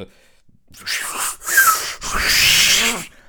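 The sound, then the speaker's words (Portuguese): A voice imitates an airplane vacuum toilet flush with a loud, breathy rushing hiss in three quick bursts, building to a sustained whoosh before cutting off. “eu não consigo tirar da minha cabeça a ideia de que pode, em alguma circunstância do ato, haver uma das partes que toque no botão para puxar o autocolismo e venha aquele som diabólico hein, do do autocolismo, do sifão, né?”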